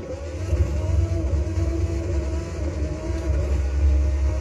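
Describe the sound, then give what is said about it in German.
A steady, droning engine of a Red Bull Formula 1 race car in a video game, on a test drive, holds a constant high rev, loud and continuous throughout with a slight buzzing rasp and no talking. “Ich kaufe mir jetzt ein Fahrzeug. Den Red Bull. Ich mache mal Probefahrt. Mal sehen, ob er sich hier so anhört.”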